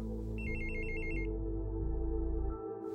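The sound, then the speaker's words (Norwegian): A telephone rings with one short, rapid electronic trill as a brother calls, fairly clear over a steady low droning tone that continues after the ring stops. No one speaks. “Neste dag ringer broren min.”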